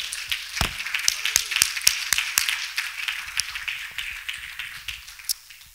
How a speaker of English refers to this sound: It's not over just because you think it's over. If you believe that, clap your hands to the Lord today.